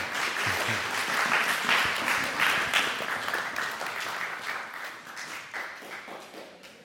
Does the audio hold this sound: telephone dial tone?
no